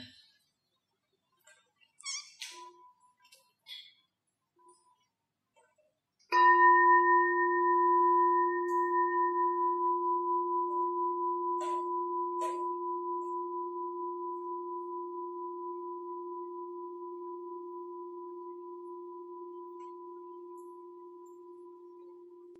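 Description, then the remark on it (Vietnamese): A single mindfulness bell is struck once for an assembly to listen and relax, ringing out with a deep, steady tone that slowly fades over many seconds, preceded by a few faint, brief rustles and small noises. “bây giờ mời đại chúng nghe một tiếng chuông thư giãn bớt căng thẳng nha”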